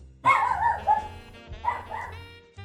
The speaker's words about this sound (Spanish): Hay una despedida del perro de este güey que se escuchó todo el perro capítulo. Es que le gusta ladrar en la noche a los fantasmas.